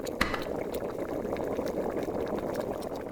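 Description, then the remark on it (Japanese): A hot pot simmers steadily with a dense, continuous bubbling and popping, fairly loud, with a faint clink near the start and no voices; a finished hot pot for a yami-nabe, eaten in the dark with the lights off. “でもあれってそれぞれが具材を持ち寄って作るんじゃないの鍋完成してるし母さん中身知ってるじゃん”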